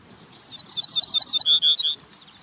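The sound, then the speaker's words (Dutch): A common reed bunting sings a short, high series of bright chirping notes, quickening slightly and growing louder toward the end, clear with no voices. “Dit is een rietgors.”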